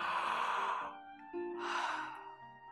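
A voice imitates a baby elephant yawning: a long, breathy exhale over a low hum, a brief pause, then a second drawn-out breathy yawn that slowly fades.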